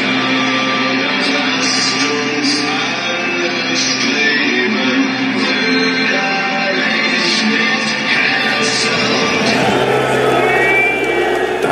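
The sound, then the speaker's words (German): A lo-fi amateur crowd recording of a live national anthem performance in a stadium at a match against FC Bayern: sustained instrumental and vocal tones over a dense wash of stadium crowd noise, loud and steady throughout, with harmonics thinning slightly toward the end. “The Boss Host mit der Nationalhymne. Ton ist ein bisschen mies ist von Amateuren mitgeschnitten, aber lohnt sich reinzuhören.”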